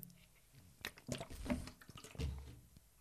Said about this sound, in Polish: E, słuchajcie, napiję się wody.